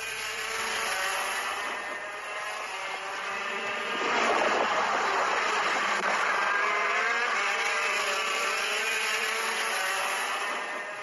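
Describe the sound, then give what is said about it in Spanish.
Racing car engines roar continuously at high pitch as Carlos Sainz trains with Roberto Meri, Félix Porteiro and Dani Kiviat, with harmonic whines rising and shifting as the cars accelerate; the sound swells louder around the midpoint and stays intense, with no voices. “quedaos con este sonido de Cars”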